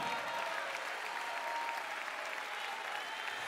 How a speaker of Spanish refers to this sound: Si usted me está entendiendo, déle el mejor aplauso al Señor de su vida en esta hora.